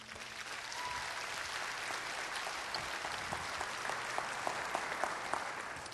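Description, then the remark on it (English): A large church audience claps steadily to welcome a guest pastor before he preaches, a dense, sustained wash of applause without pause for the whole stretch, with a few sharper claps standing out near the end. “So let's give a warm Savannah Christian welcome to our friend”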